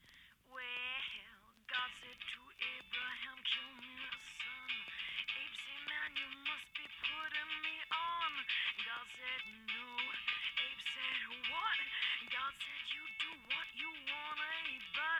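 A brief stretch of a blues-rock song with a sung vocal over dense band accompaniment, sounding thin and lo-fi as if played over a narrow radio or phone line, steady and fairly loud throughout.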